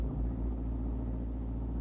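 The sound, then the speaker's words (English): A car rolls steadily along a road toward town, its engine a constant low hum and rumble that holds evenly throughout, with no voices over it. “Well, I've decided I'm not going to drive down the lake road. I'm going to town.”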